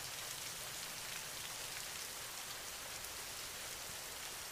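Steady rain falling, a dense, even hiss of drops with soft pattering texture, constant throughout with no pauses, fairly quiet and with no voices.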